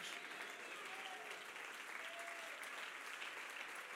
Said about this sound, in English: Come on, I think somebody will jump to your feet and clap your hands and say, We need to hear truth nowadays.